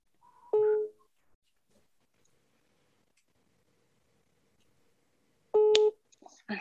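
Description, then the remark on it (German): A phone ringback tone sounds twice through a speakerphone, each burst about a third of a second long and roughly five seconds apart, with near silence in between. “Und äh, jetzt, jetzt, hoffen wir einfach mal, dass der rangeht. Und also entschuldigt jetzt die Soundqualität. Wir machen jetzt einfach mal jetzt mal über Lautsprecher.”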